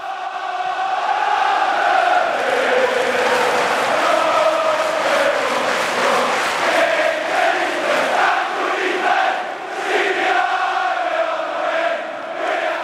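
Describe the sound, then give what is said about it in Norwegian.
A large crowd of football supporters sings a terrace song together during a match, a dense, steady wall of voices holding sustained notes, loud and continuous throughout with slight swells and dips. “Sangen var lenge den man hørte flest ganger i løpet av én kamp.”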